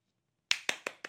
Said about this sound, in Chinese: 小阿力讲完故事之后，梅老师帮他鼓掌，所有的小朋友、大朋友也都拍起了手来。